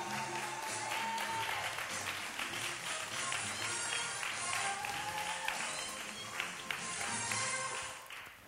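Sustained audience applause, a dense crackle of many hands clapping steadily at a fairly even loudness for several seconds, with no one speaking over it, as the audience applauds a woman being introduced.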